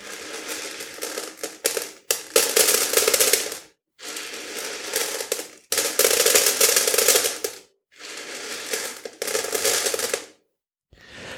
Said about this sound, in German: Das sind Bohnen. Das ist das äh, Ahrtaler Kökschen. Ich habe diese, äh, in dieser Woche meine Ernte eingefahren.